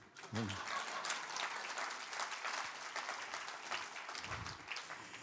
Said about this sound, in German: Es Ist immer besser mit Applaus wie ohne. Äh, die meisten klatschen ja nur am Anfang, dann nicht mehr.